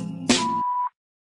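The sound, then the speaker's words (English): A single steady electronic tone sounds for about half a second, clear and fairly loud, the voicemail beep of the Medicine Remix hotline, starting with a short noisy click and ending abruptly into silence. “Please leave message at the sound of the beep.”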